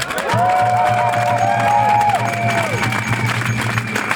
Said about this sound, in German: Wir haben ein Thema, das ist ganz sicher ein Arbeitskräftemangel. Würdet ihr das unterstreichen, dann bitte ich einmal um Applaus.